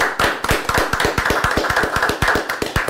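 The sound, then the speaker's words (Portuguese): A crowd applauds steadily for the audience, many hands clapping at once in a dense, lively burst that stays loud throughout, with no voices standing out. “Senhoras, senhores, senhores, uma salva de palmas para toda essa audiência fantástica.”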